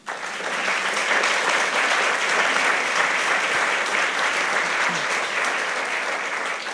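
Sustained audience applause, a dense steady wash of many hands clapping that swells in quickly and holds loud and even throughout, with no voices standing out.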